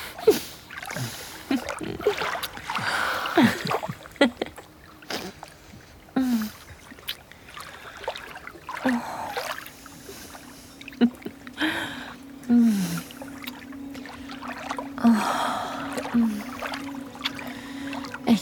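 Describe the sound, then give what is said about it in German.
Water sloshing and splashing in irregular bursts as someone swims, with gurgles and quiet breathy sounds between the splashes. “Du schwimmst zu mir rüber und findest mit deinen Händen meinen schwerelosen Körper.”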